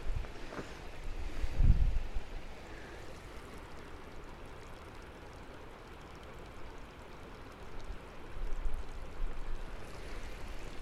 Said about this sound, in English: All right, little stream there.